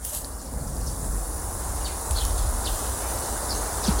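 Steady outdoor forest ambience at a lean-to shelter in the middle of the woods, with a broad wash of rustling background noise, a low rumble, and faint, brief bird chirps scattered across the top; no one speaks.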